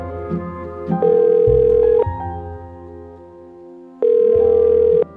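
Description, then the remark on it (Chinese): A telephone call to the direct line of police headquarters is dialed with a few soft clicks, then two steady, one-second ringing tones sound, separated by a pause of about two seconds, over a low background hum. No one speaks. “总局的直通电话很快就接通了，维克多拿起话筒”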